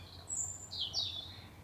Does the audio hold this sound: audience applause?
no